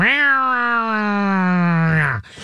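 A single drawn-out yowl from two cats fighting, a loud, steady wail held for about two seconds that sags slightly in pitch before cutting off abruptly, with no talking over it.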